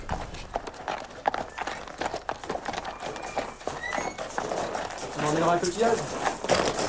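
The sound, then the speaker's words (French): Hooves of horses ridden by men in armour clip-clop in a steady rhythm, sharp knocks repeating throughout, while voices murmur and rise in the background toward the end. “Et à cheval.”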